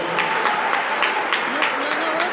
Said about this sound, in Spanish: Un aplauso también para ellos.